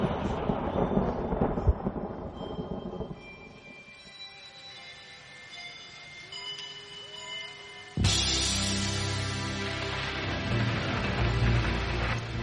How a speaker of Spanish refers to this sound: Toma trueno.